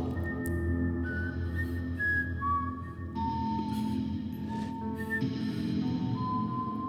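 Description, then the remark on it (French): Someone whistles a slow melody, clear sustained notes stepping up and down in pitch, over a constant low background hum, with no talking. “Je continuais à siffler.”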